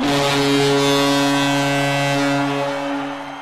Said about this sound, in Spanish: si estáis escuchando esta bocina, es que ha llegado el momento de despedir un nuevo programa de Hablemos de Hockey